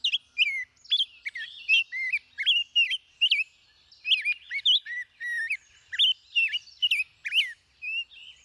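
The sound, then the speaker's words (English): A Nashville warbler, a small songbird, chirps and sings in a rapid series of high, bright notes as it flies to its nest with a caterpillar in its beak, repeating short phrases steadily, with no other sounds around it. “Nearly all of North America's smaller birds, from this warbler to chickadees to thrushes, raise their young on insects especially insect larvae like this juicy caterpillar.”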